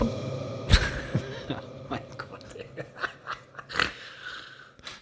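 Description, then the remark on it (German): A sudden, loud burp bursts out early on, followed by short exclamations, breathy mouth noises and another brief throaty sound a few seconds later. “Ich ja, was raus muss, muss raus. Ich alles gut. Rülpsen, ja.”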